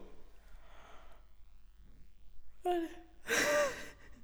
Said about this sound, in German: Das war gerade ein Gähner.